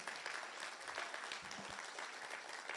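An audience claps steadily in applause for the Lord, a dense, continuous wash of applause that holds at an even level for a few seconds without anyone speaking over it.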